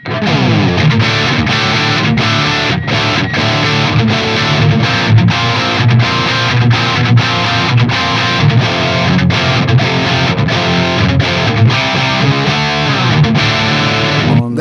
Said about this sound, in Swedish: välkomna till JCM 800-land här, ska bara stämma klart. Det är en helt nysträngad gitarr med da vanliga Dunlop-tior.